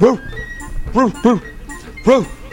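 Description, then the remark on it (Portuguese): A person imitates a dog with four sharp, loud barks in an uneven rhythm, with no other talking. “Aí o ratinho, porra, se tem um cachorro lá fora, o gato se foi.”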